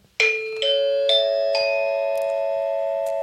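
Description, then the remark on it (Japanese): A public address announcement chime rings out alone: four clear, bell-like tones struck in quick succession, each ringing on and sustaining together in a bright, loud, lingering chord. “これもあ、放送チャイム直す。”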